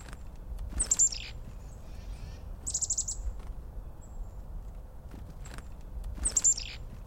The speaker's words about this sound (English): At no other time of the year are sounds so sharp the scolding winter call of the chickadee